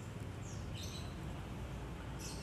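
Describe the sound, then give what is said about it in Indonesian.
Faint birds at the next-door neighbour's chirp in the morning in a few short, high bursts over a steady low background rumble, with no one talking. “Pagi ini sambil dengerin kicauan burung Di tetangga sebelah”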